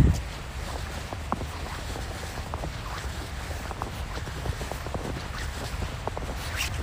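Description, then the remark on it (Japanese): Footsteps squeak and crunch on nearly 10 cm of fresh snow on the Toyohira River embankment in Sapporo in the morning, in a steady walking rhythm, over a constant background wash of the flowing river. “豊平川河川敷というか堤防雪がやっぱり1 0センチ近く積もってますねこの辺はねキュッキュッキュッキュ聞こえますかね”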